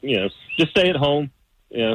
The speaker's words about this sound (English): I can hear the birds chirping in the background already.